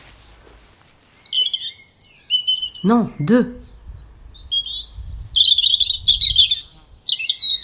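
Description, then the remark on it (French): A European robin sings from a branch of a cherry tree nearly in blossom in a garden, in thin, high warbling phrases, pausing briefly while a voice speaks two short words, then resuming with brighter, trilling bursts. “Sur une branche du cerisier presque en fleurs, un rouge-gorge.”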